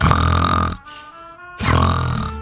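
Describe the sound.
A person fakes a snore: two loud, rough, rattling inhales with a brief quieter gap between them, with no talking.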